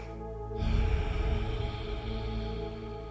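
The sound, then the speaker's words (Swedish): A long, rushing breath drawn through the throat, a steady airy hiss that swells like an ocean wave and holds for a few seconds, fairly quiet with no talking. “Ditt andetag låter som en havsvåg.”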